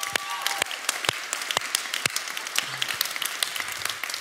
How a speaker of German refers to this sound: Komm, wir geben Jesus nochmal einen Applaus. Das war schon besser.